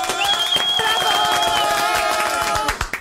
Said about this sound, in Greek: Να σας χειροκροτήσω έτσι κι αλλιώ.